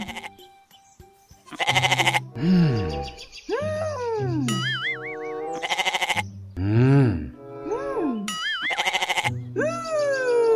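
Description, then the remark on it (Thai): A stray goat that wandered into Uncle Thongdee's garden bleats over and over, loud, each call a wavering, quavering cry. Short harsh bursts of noise break in between some of the bleats. “ก็จอยไม่รู้ว่าจะทำยังไงนี่นาถ้าเป็นคนก็น่าจะไปแจ้งตำรวจเอาผิดได้แต่นี่เป็นแพะแบะแบะใครเป็นเจ้าของก็ไม่รู้”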